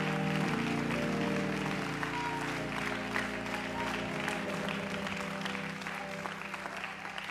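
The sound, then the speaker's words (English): An audience at a church service claps their hands unto the Lord in sustained, dense applause for several seconds, with organ-like sustained tones underneath and a murmur of voices mixed in. “In the name of Jesus, would you put your Bibles down and clap your hands unto the Lord with all your might?”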